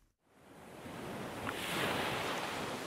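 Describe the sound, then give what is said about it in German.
Waves wash steadily onto the shore of the Oderhaff, a Baltic Sea bay south of Usedom on the border with Poland, a broad hissing surf that swells gradually louder, with some wind in the background and no voices. “Das Oderhaf, eine idyllische Ostseebucht südlich von Usedom.”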